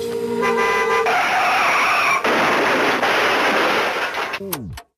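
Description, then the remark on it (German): A car horn toots, then a loud, sustained screech of braking gives way to a harsh crashing noise that cuts off abruptly with a sharp sweep at the end. “Das Auto bremst und man hört einen Unfall.”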